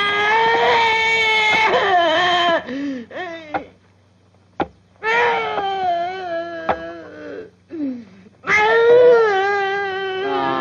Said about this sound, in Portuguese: Tá chorando, coraçãozinho do Zó, tá? Não tô, não.